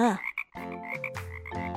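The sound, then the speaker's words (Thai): A frog croaks in a loud, buzzy, drawn-out series of three or four connected croaks, with a brief pause near the start and no voices. “จู่ๆมันก็เหลือบไปเห็นเจ้ากบตัวหนึ่ง กระโดดผ่านมา”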